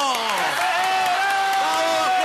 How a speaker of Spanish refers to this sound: Recibamos con aplausos al doctor Corruptillo.